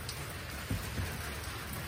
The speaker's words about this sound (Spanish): Ah, está llueve y llueve, todo está mojado. Y ahora ya no está chipi ya está lloviendo más fuerte.